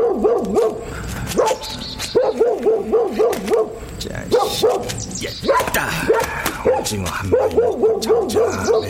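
A dog barks repeatedly and close by, loud clusters of sharp barks and yips coming in quick bursts for the whole stretch, with a few whiny, higher-pitched yelps mixed in.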